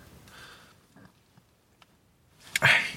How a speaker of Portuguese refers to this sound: desculpem este meio arroto, meio soluço.